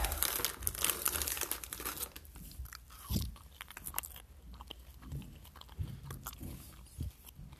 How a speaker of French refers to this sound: Donc, euh, un petit sac en plastique. J'ouvre le paquet.